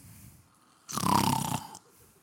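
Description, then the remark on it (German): A single loud, rasping snore lasting under a second bursts out between quiet stretches, sounding like someone deliberately imitating a snore with their voice. “Also nicht mal auch laut schnarchen, wer sagt, der ….”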